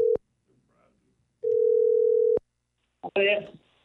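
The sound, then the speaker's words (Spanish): A steady, mid-pitched telephone tone sounds in two bursts as a number is dialed again: a short beep, then after a pause a longer sustained tone of about a second, followed by a brief voice starting to talk. “Vamos a marcarle ¿eh? otra vez, ¿ok? Ahí va.”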